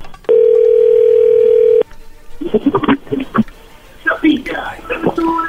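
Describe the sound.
A loud, steady telephone dial tone hums at a single low pitch for about a second and a half as a phone call is placed, then cuts off abruptly as hushed, whispery voices begin talking.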